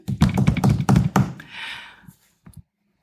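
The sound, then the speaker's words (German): A quick drum roll of rapid, dense taps for just over a second, followed by a softer hissing, cymbal-like wash that fades, then two light taps at the end. “Mach mal einen kleinen Trommelwirbel.”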